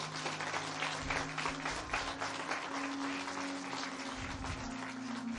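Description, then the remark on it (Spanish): An audience applauds loudly for Jesus, the King of Kings, for several seconds, many hands clapping in a dense, even wash of sound, with a low sustained tone humming underneath throughout. “Dar un aplauso fuerte al Rey de Reyes.”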